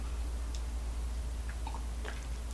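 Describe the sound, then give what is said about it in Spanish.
Soft sipping of a first sip of unsweetened coffee, not very hot, in Havana, Cuba: a few faint wet slurps and mouth clicks, followed by a swallow, over a steady low hum with no talking. “Así que me voy a dar este primer sorbito que hoy no está tan caliente.”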